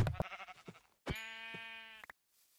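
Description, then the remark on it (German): A sheep about to be killed bleats twice: first a short wavering call, then a longer, steady, nasal bleat, both fairly loud with nothing else around them. “Das Schaf muss jetzt dran glauben.”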